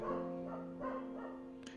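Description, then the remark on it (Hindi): A dog barks several times in quick succession, each bark a sharp, tonal burst, fairly quiet with no one talking. “यार कुत्ता बहुत भौंक रहा है सॉरी फॉर दिस अगर आपको आवाज़ आ रही होगी कुत्ते की”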